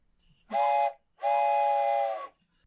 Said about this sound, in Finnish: Ja sitten mä tajusin, että missä se pilli on. Mutta onneksi on kaikki aina tuossa käsin, miten se sanotaan, käden ulottuvilla.